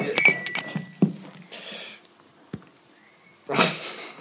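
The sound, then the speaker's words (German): Close glassy clinks and clatter, a couple of sharp knocks, then a brief rushing splash as a drink spills right onto the microphone. No one speaks. “Ich habe erstmal ein Glas über das Aufnahmegerät geschüttet.”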